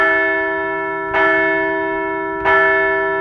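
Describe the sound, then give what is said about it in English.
A large bell rings out twice to mark the Philadelphia Phillies' fourth straight victory, each strike about a second apart, with a long, humming resonance sustaining between the clear, loud hits. No voices. “So let's ring the bell for a fourth straight victory.”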